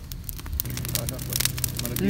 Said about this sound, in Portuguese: Não, esse pau vai queimar todinho lá, velho.